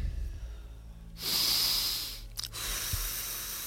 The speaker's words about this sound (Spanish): Toma una respiración profunda y echa el aire.